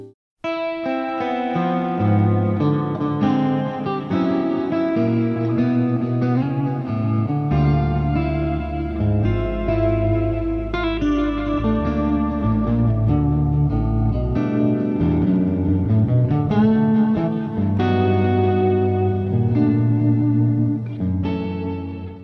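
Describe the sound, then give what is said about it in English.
An electric guitar played through a boost pedal, chords and melodic lines together with a thick, slightly driven and chorused tone, ringing steadily and fairly loud for about twenty seconds with no talking. “This is the boost pedal that I would probably use.”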